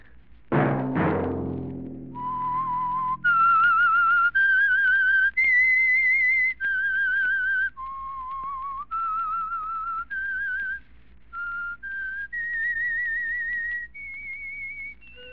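A lone whistled melody of sustained, clear notes stepping up and down in a slow, haunting tune, the signal of The Whistler, the Signal Oil Company's radio program, preceded by a brief low musical hit at the start, with no talking.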